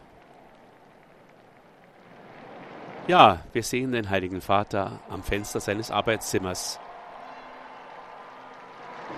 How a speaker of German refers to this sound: Er grüßt die Gläubigen und die Gläubigen begrüßen ihn mit ihrem Klatschen.